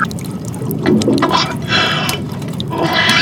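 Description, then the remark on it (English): Water rushing and gurgling into a diving suit, a steady churning flow with bubbly splashes that swells louder toward the end, continuous with no voices. “The, the suit is, is, is filling up with water.”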